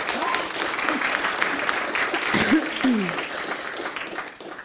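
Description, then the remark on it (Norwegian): A crowd applauds with steady, dense clapping that holds at an even level throughout, with a few brief voices and a short whoop rising above it midway, welcoming Ap mayor Marte Mjøs Persen. “Ja, vi klapper.”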